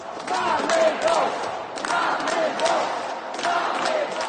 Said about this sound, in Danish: Overalt i Polen bliver søndagsmesser afbrudt i en katedral i Poznan, har demonstranter sat sig foran alderet og råber, vi har fået nok.